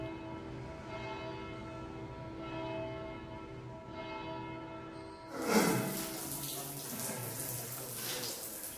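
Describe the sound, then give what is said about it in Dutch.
Someone sponges an object down in a sink of soapy water, with steady splashing and running water rising suddenly midway and continuing, after a sustained ringing tone fills the opening seconds. “Nou, hoe lang blijf je dat ding staan afsoppen?”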